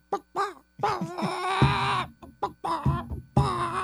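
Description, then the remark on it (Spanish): A person vocally imitates a hen, producing a string of choppy, throaty clucks and drawn-out squawking bursts in an uneven rhythm, fairly loud, with no ordinary speech. “La gallina te mira de frente, la gallina hace.”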